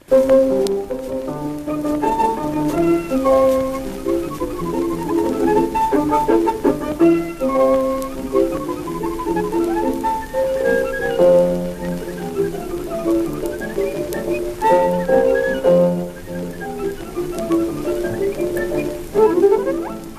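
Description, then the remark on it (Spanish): A 1904 recording of Sarasate playing his own Aires bohemios on violin: a solo violin plays a flowing, ornamented melody with sliding notes and vibrato over a thin, scratchy background hiss, with no talking. “Es una grabación antiquísima de estas que apenas no, no se abría la radio, es que suena así, pero merece la pena escuchar cómo tocaba el violín Sarasate en 1904 sus propios aires bohemios.”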